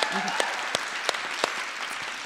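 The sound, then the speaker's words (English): A crowd claps after being asked if any Puerto Ricans are in the audience, a steady patter of many overlapping hands, with a few sharper, louder claps standing out at regular intervals over the bright, dense wash. “Are there any Puerto Ricans in the audience? Clap if you're.”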